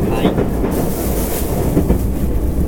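A JR 225 series Special Rapid Service commuter train runs along the rails from Ashiya to Osaka, its steady low rumble and faint rhythmic clatter filling the whole stretch at a constant, fairly loud level, as if heard from inside a carriage.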